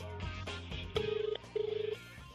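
A telephone line being dialed to test whether the phones are working: two short bursts of a warbling electronic phone tone, each under half a second, sound clear over a steady backdrop of music-like background noise.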